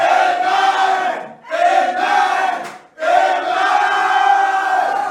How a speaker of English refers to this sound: Receive it and shout amen three times.